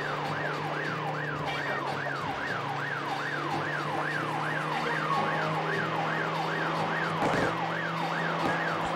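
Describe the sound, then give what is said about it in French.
A video game police car siren wails in a fast, steady up-and-down yelp for the whole stretch, loud, over a low engine rumble with no one talking, as the player drives to lose the police. “L'objectif, c'est de semer la police.”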